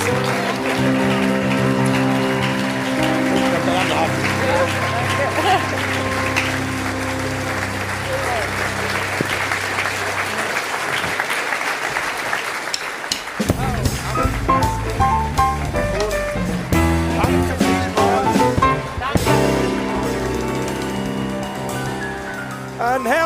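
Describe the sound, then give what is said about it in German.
An audience applauds Martina Hingis in a steady, dense wash of clapping that runs for over ten seconds, then gives way to louder tonal, musical sounds in the second half. “Und ich glaube, das hat einen ganzen herzlichen Applaus verdient. Einen herzlichen Applaus der Martina Hingis.”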